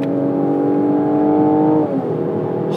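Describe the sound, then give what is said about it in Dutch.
A GLC 43 AMG SUV's 3-liter V6 biturbo engine (367 hp) revs loudly as it is shifted down from ninth to fourth gear, its harmonic drone rising and holding steady before dropping off sharply near the end, with no voices over it. “Het is een 3 liter V6 bi-turbo, 367 pk.”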